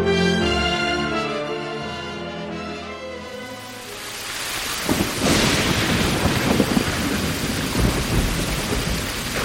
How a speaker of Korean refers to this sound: 때이른 장마가 시작되었다.